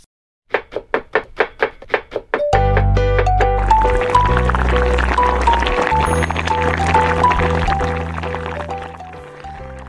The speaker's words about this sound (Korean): 오늘은 건강한 식탁 지금 어, 찌개 끓는 소리 드시, 들리시죠?